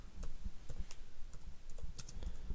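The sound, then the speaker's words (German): Rapid clicking of keys on a computer keyboard as someone googles how to tell whether a smartphone is being listened in on, an uneven burst of crisp taps typed steadily with no voices. “Boah, ich ja, vor allem dieses Geräusch, ich höre das ja nur, ne? Erkenne, ob so dein Smartphone abgehört wird. Wie soll ich das? Google, ich google gerade.”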